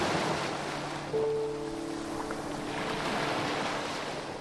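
Waves wash steadily onto a sea beach at sunset in a continuous broad hiss of surf, with a soft sustained hum-like tone running underneath and no voices.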